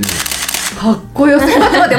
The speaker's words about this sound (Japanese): ま、本当に待ってこれもさあの多分ラジオにわざわざ入れる用のボタンとかで鳴るような音じゃないですかこれ本当のカメラの音ですよ皆さん、うん、めちゃめちゃかっこいい